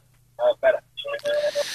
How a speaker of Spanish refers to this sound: Quita el manos libres, tío, que si no me, me, me oigo de rebote, tío. Es una movida.